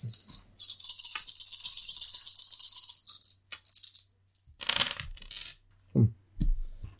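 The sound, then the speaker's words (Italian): A player rolls all the dice at once during a game. Several dice rattle and clatter across a hard surface in a long, continuous tumble, followed by a few shorter bursts of clicking as they settle, with no one speaking. “Quindi prendo tutti i dadi e li devo tirare.”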